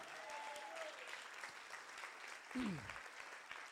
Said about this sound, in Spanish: Vamos, eso merece un mejor aplauso.